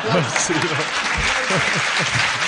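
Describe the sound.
A crowd applauds with steady, dense clapping throughout, loud and continuous, while voices talk and chatter underneath the applause.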